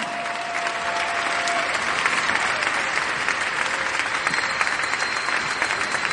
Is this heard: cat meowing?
no